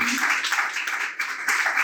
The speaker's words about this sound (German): Und ähm, das ist super und das ist auch ein Applaus wert.